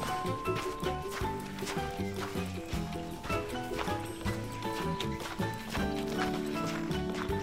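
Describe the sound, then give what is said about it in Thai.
A deer's hooves clop in a steady walking rhythm as it walks to a tree where it regularly feeds, mixed in with continuous background music at a moderate level, with no one speaking. “แต่ด้วยความฉลาดและ รอบคอบของเจ้ากวาง เมื่อมันเดินไปถึงต้นไม้ที่เคยหาอาหารกินเป็นประจำ มันจึงไม่รีบเข้าไปที่ใต้ต้นไม้ในทันที”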